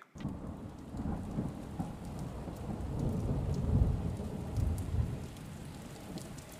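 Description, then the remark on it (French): Steady rain pours down continuously, a dense hiss with scattered drips, while deep thunder rumbles low underneath and swells briefly midway. No voices are present. “Cela faisait plusieurs semaines maintenant que la pluie tombait sans discontinuer, ou presque.”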